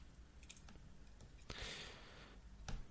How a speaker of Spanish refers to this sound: Yo estoy haciendo clic a ver qué me había anotado acá.